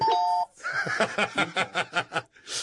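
A brief, steady electronic doorbell chime rings out first, then gives way to about eight quick, rhythmic voice-like bursts resembling chuckling, ending with a soft breathy hiss.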